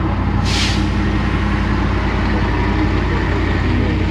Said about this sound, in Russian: Так как мы находимся на Селигере, то мимо нас могут проезжать машины и даже летать самолеты.